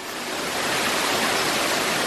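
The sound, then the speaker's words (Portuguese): A steady, dense, loud roar of rushing water from a waterfall fills the whole stretch, with no voices over it. “A gente vai lá dentro a cachoeira tentar achar a.”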